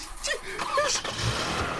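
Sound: car engine starting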